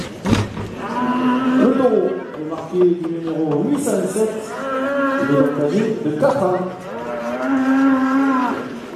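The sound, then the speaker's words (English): A black bull in the bullring at Vauvert, taking part in a course camarguaise (bull running), lows loudly, several long, drawn-out bellowing moos following one another with only brief breaks, over a steady background murmur. “Here he is. Here's the black bull.”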